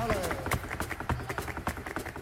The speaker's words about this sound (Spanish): Oye, bueno, no sé cómo escucha, estábamos oyendo un zapateo tuyo.